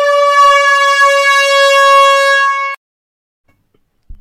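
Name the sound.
horn blast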